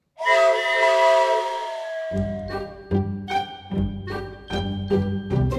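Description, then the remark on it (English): A loud steam train whistle blows a single sustained chord for about two seconds, then an upbeat rhythmic musical jingle with steady beats takes over. “Okay, do you hear that? It's the sound of the train whistle, meaning that it's time to play Disney World Insider Free Association”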